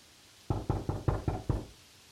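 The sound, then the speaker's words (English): Six quick knocks on a cubicle door, evenly spaced, each a dull thump with a short decay, then quiet. No one speaks. “Why are you knocking the cubicle door?”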